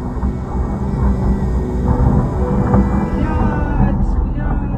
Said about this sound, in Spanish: De fondo se escuchaba el ruidoso vuelo de varios aviones.